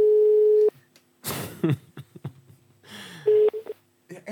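Steady telephone tones sound twice as a call is placed to a friend's boyfriend. Each is a flat pitch held for about half a second, with clattering handling noises and short clicks in between.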